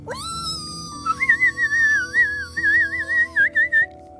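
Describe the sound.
A person whistles a warbling, birdlike tune, with fluttering trills and short repeated phrases, imitating birdsong. The whistling is clear over a faint background.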